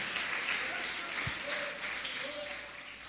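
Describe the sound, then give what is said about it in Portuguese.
A crowd applauds Jesus steadily in a dense, continuous wash of clapping, fairly loud and sustained, with a few faint voices calling out beneath it. “Vamos aplaudir Jesus, né?”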